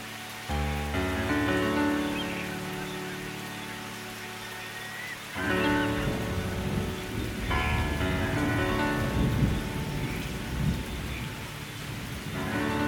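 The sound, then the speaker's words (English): Steady rain pours down through a thunderstorm, with deep rumbles of thunder rolling in at the start and again midway, filling the scene with a dense, continuous wash of sound. “Maybe you'd be strolling barefoot through the wet sand with your umbrella, feeling the sand between your toes you know best, which is the perfect place for you to be while it storms.”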